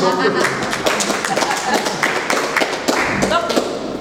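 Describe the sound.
An audience gives a double round of applause for a speaker, with dense, steady clapping from many hands, sustained at a fairly even loudness for several seconds, with some voices faintly audible underneath.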